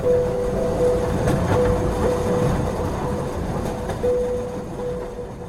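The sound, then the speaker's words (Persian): A train rumbles steadily along the rails, with a dense low-end roar, a faint repeating clatter of wheels, and a sustained metallic tone riding over the noise throughout. “بیر شعر ننسته بیزی قطارا مندیدیب و خیالی بیر سفر آپارا”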